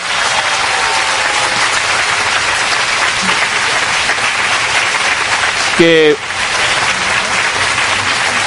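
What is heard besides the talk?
audience applauding loudly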